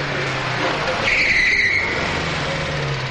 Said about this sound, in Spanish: llega en el coche a toda velocidad.